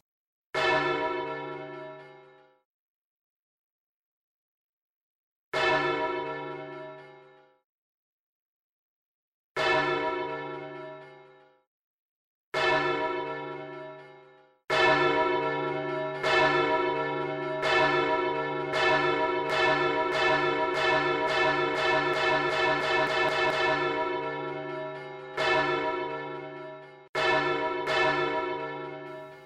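Church bells ring loud in the city centre of Valencia: a few slow, separate tolls with long fading decays, then a rapid, overlapping peal of several bells ringing together until the end, with no voices.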